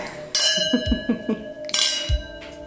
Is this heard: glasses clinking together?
yes